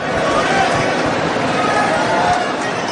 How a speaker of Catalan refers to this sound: Doncs els aplaudiments a plaça, ara mateix el sentiu de fons és precisament pels membres de la vella